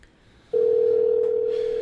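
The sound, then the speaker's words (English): After a half-second of quiet, a steady, loud phone tone switches on and holds unbroken to the end, like the ringback heard while an outgoing call rings. “It's ringing. I get nervous when it rings, guys.”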